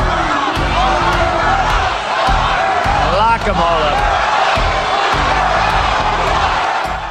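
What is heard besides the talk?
rally crowd chanting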